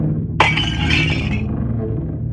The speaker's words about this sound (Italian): Mi scagliò addosso il bicchiere, che scansai per un soffio e andò a schiantarsi contro al muro.